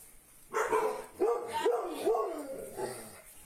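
A dog barks about five times in an uneven series, the short high yelps sounding somewhat muffled, with no one talking over them.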